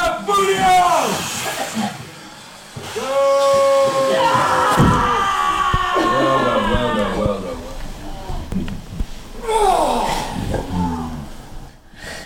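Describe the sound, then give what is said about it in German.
A group in a breathing workshop, lying together on the floor breathing, twitching and shaking, breathes heavily with overlapping moans, groans and drawn-out cries rising and falling in loud waves, a brief lull, then another surge of vocalising and a laugh. “man sieht die jetzt hier, wie sie alle gemeinsam in, auf dem Boden liegen und atmen und zucken und sich schütteln und alle über sich hinausgehen irgendwie.”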